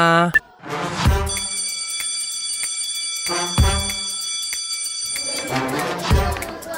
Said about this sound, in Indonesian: Udah bel masuk nih.